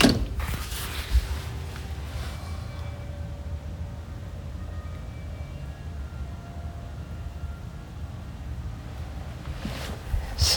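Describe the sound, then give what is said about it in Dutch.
Faint carillon bells ring out a slow melody of sustained tones over a steady low rumble of outdoor background noise, heard from a balcony after a brief creak at the start. “Maar ik heb altijd met zo'n uh, carillon dat ik dan nooit weet welk liedje er gespeeld wordt.”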